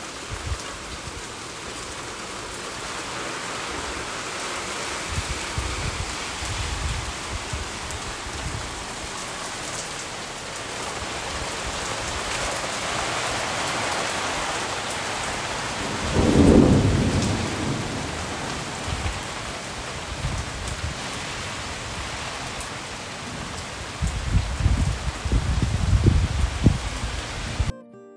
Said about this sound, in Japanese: すごい雷でした。えー、雨もすごかったですね。